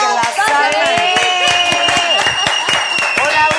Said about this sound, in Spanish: Con un fuerte aplauso lo recibimos.